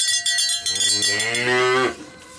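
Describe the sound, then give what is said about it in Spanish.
A cow lets out a long, loud moo lasting nearly two seconds and sliding in pitch before cutting off, while cowbells clank and ring steadily throughout. “no olvidamos a las cabezas de ganado”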